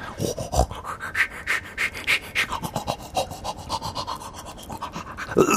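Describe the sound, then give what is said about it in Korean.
A voice imitates tooth brushing: a steady run of quick, breathy scrubbing strokes, several per second, continuing for about five seconds and ending with a louder burst. No one speaks. “저 양치 소리.”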